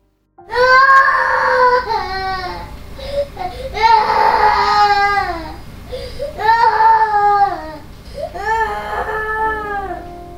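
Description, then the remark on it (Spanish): A four-year-old girl, woken at night, cries hysterically in loud, wailing bursts, about four long sobbing cries with brief catches of breath between them, intense. “Y esa noche ella se despertó llorando histéricamente.”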